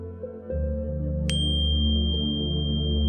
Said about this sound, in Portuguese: O som do sino marcará o início e o final.